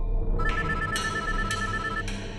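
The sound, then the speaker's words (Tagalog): An incoming call rings on a woman's cellphone at night, over a low background hum, with steady electronic tones and bright pulses recurring about every half second, fairly clear, no one talking. “At habang naghihintay kaming mag-umaga, may tumawag sa cellphone ng ate ko.”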